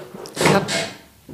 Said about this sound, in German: das war der Stuhl.